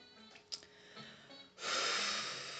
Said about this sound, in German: Atmen, ja.